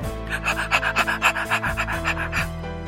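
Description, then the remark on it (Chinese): A puppy named Hutou pants rapidly and steadily, about a dozen quick, breathy huffs in an even rhythm over a low, constant hum, with no talking. “这就是奶奶送我的小狗，它叫虎头。”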